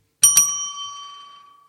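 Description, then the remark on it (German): A small bell, like a bicycle bell, is struck twice in quick succession as a sound effect, and its bright metallic ring sustains and slowly fades. The bell is clear, with no talking. “Äh, hau mal auf die ja. Fotobimmel drauf.”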